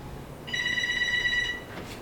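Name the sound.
telephone ringing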